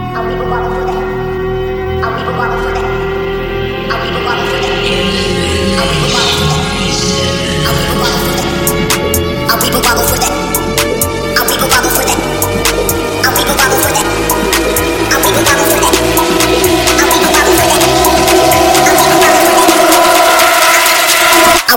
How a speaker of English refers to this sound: Bubble, bubbles for the hell of it.